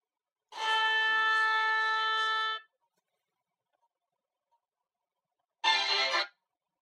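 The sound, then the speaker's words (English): A cor anglais plays two held notes with a reedy, mellow tone: a long steady note lasting about two seconds, then silence, then a shorter note. No voices are heard. “The cornglay is like a bigger oboe, and it makes a sort of sad, lonely sound.”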